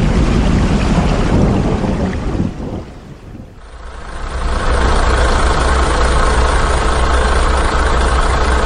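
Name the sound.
truck engine idling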